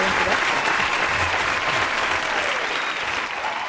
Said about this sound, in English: Sorry about that. we gotta tone it down out there, please. God, the applause is very loud.